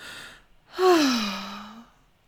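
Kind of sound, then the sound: vocal imitation, imitated loud heavy breathing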